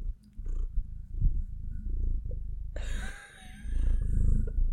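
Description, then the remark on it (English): A cat purrs loudly right up against the microphone, a steady, rumbling throb that runs the whole time, joined partway through by a rough, breathy rustling noise. “Aggressively purring into the microphone.”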